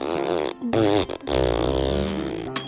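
A long, loud, buzzy fart with a wobbling pitch, close up, sputtering on for a few seconds with brief breaks before trailing off.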